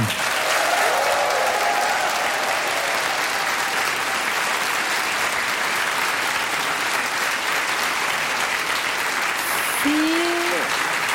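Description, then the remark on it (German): Loud, sustained applause from a large crowd at a crime-fiction festival in a school auditorium in Braunschweig, Germany, fills the space for over ten seconds, a dense steady roar of clapping with a few faint whistles or cheers rising through it. “Ein Applaus, wo man einen Schuss gar nicht hören würde, wenn jetzt jemand ermordet oh, worden wäre.”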